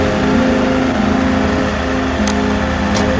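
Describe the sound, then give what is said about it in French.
The engine of a heavy truck, the last truck of a group, runs loud, its steady low rumble and harmonic drone rising slightly as it revs, with a couple of brief high clicks near the end and no voices. “Professeur, c'est le dernier camion.”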